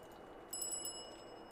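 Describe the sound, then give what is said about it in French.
A bicycle bell rings repeatedly in a fast, trilling run after a brief quiet start, its bright metallic tone sustained and fairly faint, with no voices present. “Sa sonnette résonne en boucle. Elle résonne. Elle résonne encore et encore.”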